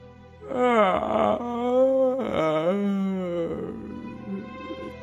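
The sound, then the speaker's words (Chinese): A storyteller's voice imitates the big bad wolf's big yawn as the wolf pretends to be sleepy: two long, loud, moaning vocal swells with a wavering, sliding pitch, then a softer, breathy trailing sigh. “过了一会儿，大野狼就假装困了，打了一个哈欠”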